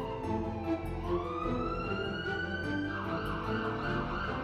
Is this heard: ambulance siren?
yes